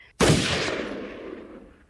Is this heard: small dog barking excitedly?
no